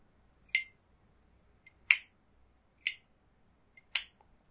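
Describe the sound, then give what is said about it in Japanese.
A Zippo lighter's metal lid clinks open and snaps shut several times, four bright, sharp metallic clacks, some preceded by a faint tick, spaced about a second apart with silence between and no talking. “ジッポに変えますね。”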